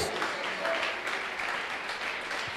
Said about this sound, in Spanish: Dale un aplauso grande al Señor, que sea bien fuerte, que se escuche. Gloria a Dios.